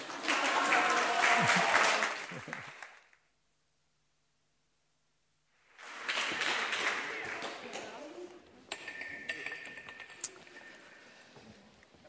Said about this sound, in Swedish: Och nu är det slut, så nu får ni applådera.